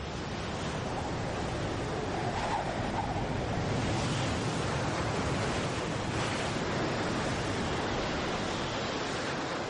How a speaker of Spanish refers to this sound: En los fondeaderos, los barcos sufrían los embates del mar. Los pozos de cimentación no resistieron al cataclismo. Peor aún, algunos bloques se rompieron, dejando que las olas entraran al puerto.